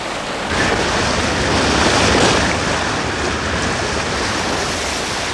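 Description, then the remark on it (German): A motorboat comes in and reaches a beach over steady, roaring surf, the rushing wash of waves and wind swelling briefly and then holding level, loud throughout. “Als das Motorboot den Strand erreichte, hielt Bob die Metallkassette bereits in der Hand.”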